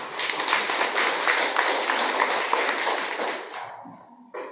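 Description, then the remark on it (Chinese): An audience bursts into steady, loud applause for the students present, many hands clapping in a dense crackling wash for several seconds before it thins out and fades near the end. “所以要把掌声送给不愿意、不心甘情愿坐在现场的同学。”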